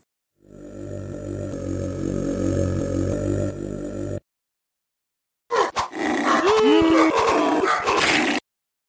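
Two loud bursts of combat sounds from a roughly 30-year-old video game, accompanying each blow a knight deals in a fight against a Trock: a sustained, guttural roaring battle cry, a brief silence, then a harsher stretch of growling screams with rising and falling yells.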